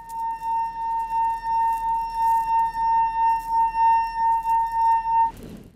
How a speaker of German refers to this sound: Auch die Enkelin des mittlerweile verstorbenen Mannes benetzt einmal ihren Finger und bringt ein Glas zum Klingen.